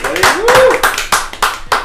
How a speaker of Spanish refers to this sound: Un aplauso también para ellos.